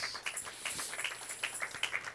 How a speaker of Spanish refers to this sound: un aplauso a Jesús.